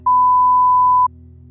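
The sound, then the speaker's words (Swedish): A single steady electronic beep, about one second long, rings out clearly at a constant pitch over a faint low hum: the voicemail tone after a phone greeting asking the caller to leave a message after the beep. “Lämna ett meddelande efter pipet.”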